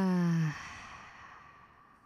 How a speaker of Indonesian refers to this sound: Buang nafas dari mulutnya.